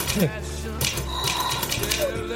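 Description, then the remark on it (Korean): Irregular clacking of keys on a 1912 Corona manual typewriter, typed by a person in a suit, sharp mechanical strikes in uneven bursts, with a faint murmur of room sound underneath. “저기 저 수트 입고 타자 치는 사람에 비하면.”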